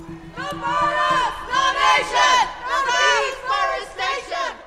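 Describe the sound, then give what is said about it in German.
Young protesters sitting in tree houses in the Dannröder Forst in Hessen shout angrily down from the trees at police officers in helmets and bulletproof vests below. Their loud, overlapping voices rise and fall in repeated bursts for several seconds, with no other sounds standing out. “Von den Bäumen schreien junge Menschen hinab. Sie sind wütend.”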